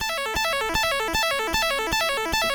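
A pocket synthesizer runs a sequencer pattern: bright, buzzy stepped notes over a steady beat of short percussive hits, about six evenly spaced pulses, clear with no voices.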